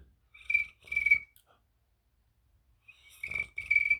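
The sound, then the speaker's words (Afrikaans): A cricket chirps in two short pairs of buzzy, high-pitched trills, separated by a long quiet gap, moderately loud with no talking. “Ons kriek. 'n Kriek.”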